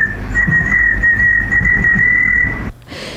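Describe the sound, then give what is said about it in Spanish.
A person whistles one high, steady, slightly wavering note for about two and a half seconds, imitating a cricket's chirp, over a low background rumble before it cuts off abruptly. “no tenía ninguna anécdota y quiso silbar como un grillo.”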